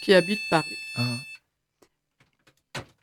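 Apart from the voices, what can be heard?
studio telephone ringing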